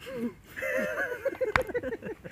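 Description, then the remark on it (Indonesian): A voice imitates a TV host's heavy, exaggerated breathing: wheezy, whining gasps in a quick uneven series, with one sharp burst of breath near the middle and no words. “Dia kan hostnya aja kan karena ini ya nafas doang.”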